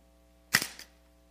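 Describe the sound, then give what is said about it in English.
A mousetrap snaps shut on a pencil with one sharp, loud crack, followed by a brief rattle and a fainter click a moment later. No one speaks. “I wanted to show you just how powerful this mousetrap is.”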